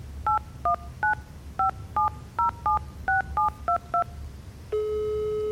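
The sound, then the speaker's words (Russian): A phone number being dialed to call science journalist Alexander Sokolov: eleven short, two-toned keypad beeps in a quick, slightly uneven rhythm, followed by a steady, continuous electronic tone over a low background hum. “Попробую позвонить ему.”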